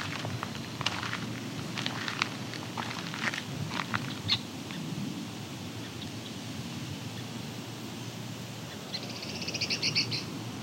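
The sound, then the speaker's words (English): An eastern meadowlark's clear, high whistled song rings out near the end, following scattered short chirps and calls over a steady outdoor hiss with a low chorus of frogs or insects. “That was a eastern meadowlark.”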